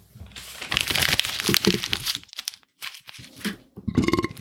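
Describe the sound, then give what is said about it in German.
Loud crinkling of paper being crumpled up, with bursts of crackling across the whole span, a brief pause near the middle, then another round of crunching. “zerknüllen, wegpacken gilt.”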